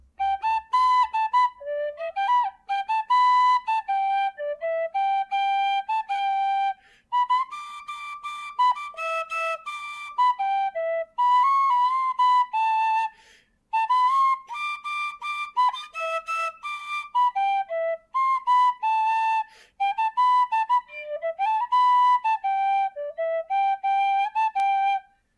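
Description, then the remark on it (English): A tin whistle plays a lively Irish folk tune with quick ornamented runs and sustained high notes, fairly loud, with a few brief pauses between phrases and no talking. “Can I play some tin whistle for you?”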